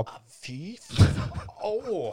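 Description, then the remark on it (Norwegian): A single loud thud of a man's knee banging into his desk at a small protruding fitting used to mount microphone stands, framed by his pained exclamations before and after the impact. “Nå, ja, beklager det, men nå integrerte jeg kneet mitt i skrivepulten min her.”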